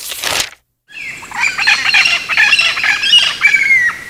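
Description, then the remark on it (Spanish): A flock of parrots squawks loudly overhead as they return to the eucalyptus trees of a park, harsh overlapping calls crowding together almost continuously after a brief burst and short pause, with faint flapping wings. “Todos los martes en la clase de griego, los loros volvían sobre nuestras cabezas a los eucaliptos del parque, embarrando la tradición literaria académica cubriendo el cielo de negro”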